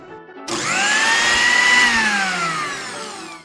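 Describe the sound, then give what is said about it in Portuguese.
A kitchen blender motor in a home kitchen whirs on abruptly and runs loud and steady for about three seconds, its high whine rising slightly in pitch before easing off. No one speaks over it. “Vou jogar essa palavra silêncio no liquidificador para poder misturar bem.”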